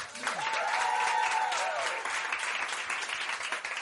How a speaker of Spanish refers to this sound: Y daros un aplauso inmenso y tocaros y besaros a vosotros y vosotras mismas que sois maravilla del mundo. Aplauso para vosotros.